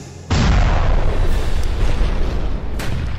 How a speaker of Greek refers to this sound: λίγο πριν την έκρηξη του ηφαιστείου της νήσου.